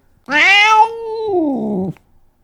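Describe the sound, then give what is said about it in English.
A single drawn-out meow from a cat named Cringer, loud, starting bright and strained then dropping into a lower, wavering tail before cutting off, with no talking around it. “This is Cringer.”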